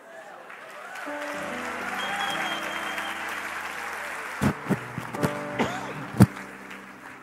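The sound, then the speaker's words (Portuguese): An audience breaks into applause that swells after a second and holds as a steady wash of clapping, with voices mixed in and several loud, sharp individual claps near the end. “Vocês aplaudiram, eu não sei porque, eu não falei nada.”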